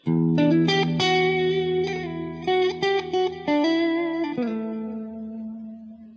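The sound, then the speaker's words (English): An electric guitar with a clean amp tone plays a short phrase of ringing chords and single notes, each struck distinctly, with the final chord sustaining and fading out. No one speaks. “Let me put it on the clean channel here.”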